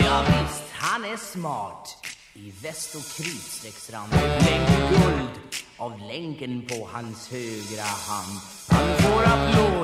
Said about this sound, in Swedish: … med … låter så här.